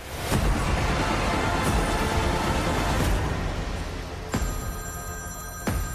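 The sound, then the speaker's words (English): A telephone rings over a steady rushing background noise, its bright, metallic tone sounding clearly in the last couple of seconds alongside a few sharp clicks and knocks. “Pick up the phone”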